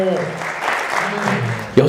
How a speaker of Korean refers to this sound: 박수 한번 주세요.